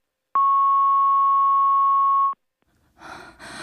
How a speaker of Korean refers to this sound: 연결이 되지 않아 음성 사서함으로 연결되며 삐 소리 후 통화료가 부과됩니다.